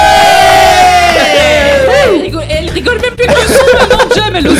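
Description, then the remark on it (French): A loud studio audience on the Buzz Radio show erupts in shouting and cheering, a dense crowd roar of whoops and yells with scattered laughter, sustained throughout over a pounding music bed. “Maintenant, vous pouvez gueuler.”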